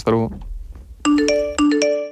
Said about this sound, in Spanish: No mires tu móvil, porque no has recibido ningún mensaje de WhatsApp ni de Telegram solo es un efecto sonoro que hemos puesto en este anuncio para llamar tu atención